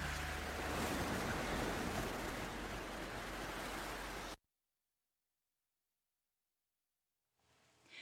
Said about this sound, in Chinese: 大家听到大海的声音了吗？